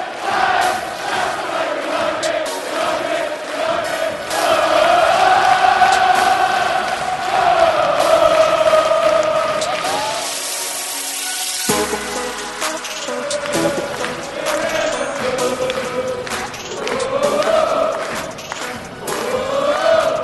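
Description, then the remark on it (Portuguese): A large football stadium crowd of Crystal Palace fans roars and chants continuously after their team's first goal of the season, against the reigning champions of England: a dense wall of voices rising and swelling in waves, with sustained sung notes carrying over the loud, echoing cheering throughout. “A torcida tá fazendo seu papel. Tá, tá. Hoje tá animado aqui.”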